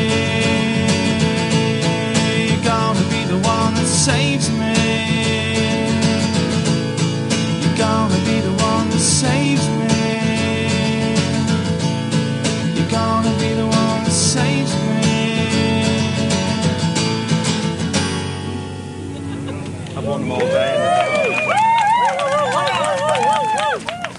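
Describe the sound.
Loud live rock performance with a full band and a festival crowd, sustained chords ringing for about twenty seconds before the music drops away, leaving loud voices with wavering, sliding pitch.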